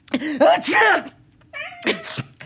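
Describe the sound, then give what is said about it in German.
A male cat meows several times in quick succession, loud, with drawn-out rising and falling cries, followed by a brief higher-pitched mew. “Es miaut.”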